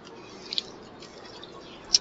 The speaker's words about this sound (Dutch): Zo, even een slokje water ondertussen. Een beetje droge mond van, van het praten.